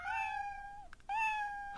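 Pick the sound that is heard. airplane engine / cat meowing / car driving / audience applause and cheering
cat meowing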